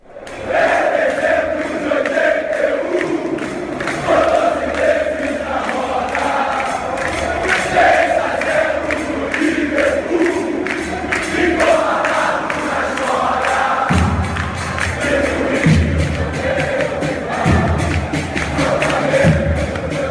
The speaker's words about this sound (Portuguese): acabamos de ouvir um canto que a torcida flamenguista canta em todos os jogos, grito este que rodou o mundo após a conquista da Libertadores e a participação no Mundial de Clubes, realizado no Catar.